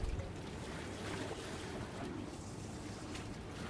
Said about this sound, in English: And right now, you're on a boat on the Thames, on a mooring that overlooks Tower Bridge. It's a Sunday evening and the sun is setting.